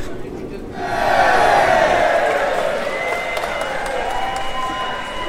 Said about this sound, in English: So the doors are opened. I would estimate a good couple of hundred people who are headed through down the escalators onto the concourse of the Elizabeth line, headed down with the first tranche of passengers who are all touching their contactless